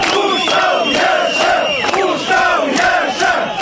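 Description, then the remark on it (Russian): A crowd of more than a thousand people gathered on a mountain chants the slogan "Pushtau, live" in unison, loud, rhythmic repeated phrases with a dense wash of many voices rising and falling over a few seconds. “Раз в некоторое время толпа скандировала”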